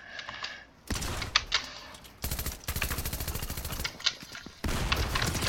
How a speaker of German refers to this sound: Nein! Erster Schuss nicht getroffen. Gar nicht gut.